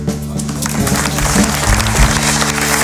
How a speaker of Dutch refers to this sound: Uw applaus